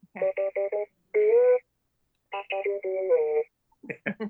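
An R2 astromech droid called R2 D3, or DD, about 14 inches tall and fitted with a scoundrel personality chip, chirps out a string of electronic beeps and warbling tones, a quick stuttering burst, a pause, then a longer sliding whistle and a final rapid flurry of blips.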